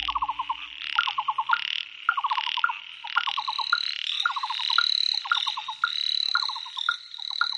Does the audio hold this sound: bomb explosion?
no